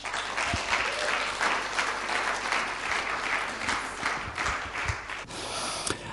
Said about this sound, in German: Ich würde sagen, wir heißen ihn willkommen mit einem herzlichen Applaus.